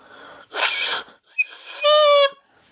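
A saxophone mouthpiece blown on its own, turned so that one side vibrates more freely: first a breathy, airy rush, a small click, then a bright, reedy squawk held for about half a second, fairly loud.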